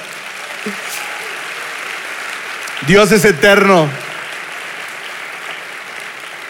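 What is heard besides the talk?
audience applause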